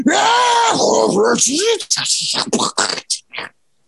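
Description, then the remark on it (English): A voice loudly imitates a screeching race car engine, a strained wail that sweeps up and down in pitch for about two seconds, then breaks into short choppy bursts. “I'm just saying I, I wouldn't call that a gentle purr.”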